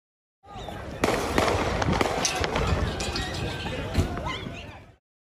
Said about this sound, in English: he's being chased down the street, and finally he's knocked down. He turns and opens fire.